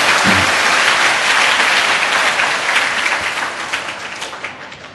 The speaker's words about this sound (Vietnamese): nếu các cháu đồng ý với ờ, khuynh hướng đó thì xin hãy dành tràng pháo tay để lắng nghe các câu chuyện